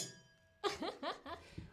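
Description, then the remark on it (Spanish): A faint, sustained ring of glasses clinked in a toast fades out before a voice cuts in with a few short, lively syllables. “Brindemos. Salud.”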